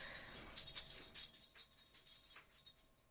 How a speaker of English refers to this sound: Now that our doggy has stopped scratching himself